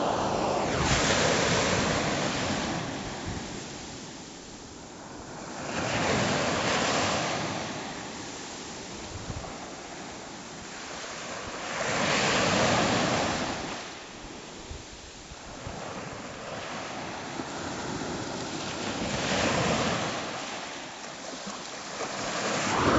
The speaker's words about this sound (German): Aber jedenfalls, das ist für euch die letzten Wellen aus diesem Podcast.